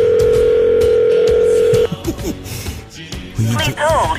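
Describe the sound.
A steady, loud telephone tone hums for almost two seconds while waiting on the line, then cuts off and gives way to muffled voices and handling noise.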